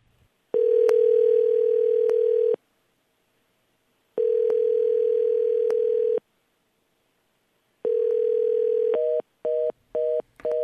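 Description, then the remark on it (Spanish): A telephone line tone from an unanswered call to an 800 number, one of at least 15 attempts from different phones, rings out in three long, steady buzzes separated by pauses, then breaks into a rapid run of short beeps. It's clear, with no one speaking. “Oye, Rocío, pues yo creo que la mejor opción será el Internet porque nosotros llamamos, por lo menos 15 intentos hicimos desde distintos teléfonos a ese teléfono”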